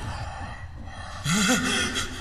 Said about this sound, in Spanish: Y justo también cuando sintió en su oreja una profunda respiración.